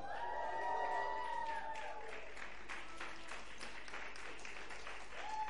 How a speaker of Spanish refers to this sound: ¿Cuántos dan un grito de júbilo?